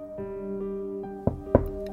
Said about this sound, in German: Die Tür öffnete sich und ich erstarrte.